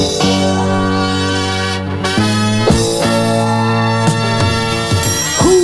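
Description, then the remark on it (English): A 1970s song sung by an athlete and showman begins playing loudly, with sustained, bright instrumental notes that shift pitch every second or so, sounding like an old recorded intro before any singing comes in. “And so we're going to go out with a little song he sang back in the 70s.”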